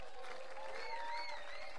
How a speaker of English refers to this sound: can you clap your hands and celebrate yourself clap your hands and celebrate yourself